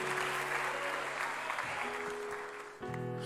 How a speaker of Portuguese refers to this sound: Quem recebe esta palavra. Aplauda e glorifique ao Senhor.